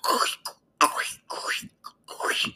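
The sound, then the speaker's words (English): A voice imitates the groan of the first zombie heard in the first room of a scary video game, with five or six raspy, guttural bursts separated by short pauses, fairly loud, with no other sounds around it. “Like even from the first zombie you see when you first go in the first room, and you see the time you can hear him. He like this,”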